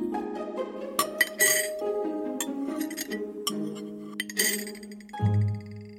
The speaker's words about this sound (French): Elle est trop chaude dit-elle en remettant la cuillère dans le bol.